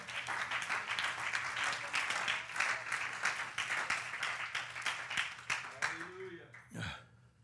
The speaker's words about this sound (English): How about you? Come on, clap your hands, somebody.